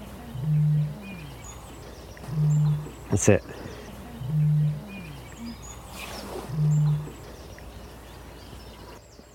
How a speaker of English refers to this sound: That was it. That was the booming bittern. What a great noise. See if we get a bit more of that.